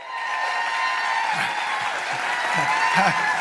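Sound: audience standing and applauding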